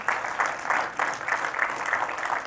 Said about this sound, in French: Wow! je t'ai vu applaudir. On peut applaudir. Vas-y, vas-y, vas-y.